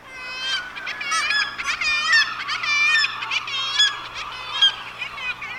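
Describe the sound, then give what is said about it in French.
A noisy colony of black-legged kittiwakes calling continuously, with many nasal, wailing cries overlapping in a dense, steady chorus. “Et après, il y a la mouette tridactyle.”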